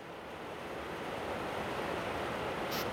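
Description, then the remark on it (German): Heavy rain pounds steadily on the tin roof of a mission house in Loliondo, a dense, continuous roar of hiss and rattle that holds at the same loud level throughout, with no voices. “Also so hört sich das an auf dem Blechdach, ne?”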